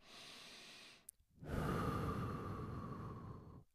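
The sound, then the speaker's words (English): A single slow, deliberate breath: a steady inhale of about a second, a brief pause, then a longer, fuller exhale, done as methodical breathing to calm down. No one speaks. “Breathing that is, you know, in,”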